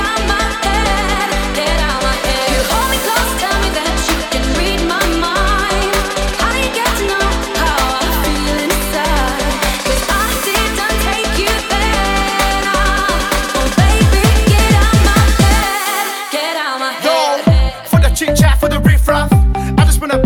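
A loud electronic dance track plays with a steady, pounding beat and layered synths, briefly breaking down near the end as the low end drops away before the rhythm kicks back in.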